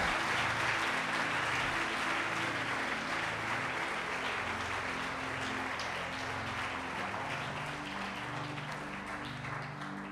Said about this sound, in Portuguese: Dá uma salva de palmas a ele, porque ele é bom.